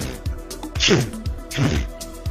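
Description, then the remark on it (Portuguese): A voice mimics an old lady sneezing twice in quick succession, each a sharp, breathy burst with a hissing edge, fairly loud against a low, steady background. “Invariavelmente, quando espirra, é, é, é dois barulhos.”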